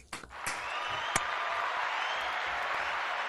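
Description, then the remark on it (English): A crowd breaks into applause for Marla Gibbs that swells within a moment and holds as a steady, dense wash of clapping for a few seconds, with a few sharper claps standing out. “So clap it up again for Ms.”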